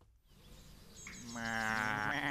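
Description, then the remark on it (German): Several sheep of a shepherd's flock bleat, their wavering cries overlapping and swelling louder toward the end after a brief quiet start, with a low rumble of movement underneath. “Das ist ja mein Freund der Schäfer mit seinem wolligen Völkchen.”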